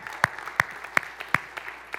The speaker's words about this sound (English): Oh, come you can clap for that.